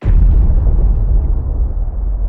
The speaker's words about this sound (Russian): В нее встроен компас, и если стрелка этого компаса начинает показывать не на север, а куда-то чуть-чуть в другую сторону из-за того, что тяжелый железный корабль проплывает сверху, то мина взрывается